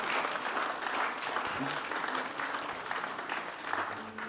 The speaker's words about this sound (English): Give the Lord a clap offering someone.